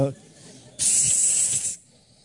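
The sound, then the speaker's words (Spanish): A voice imitates a snake with one sharp, loud hiss lasting about a second, preceded and followed by quieter background sound. “Como, ojalá que no sea una serpiente que hace así.”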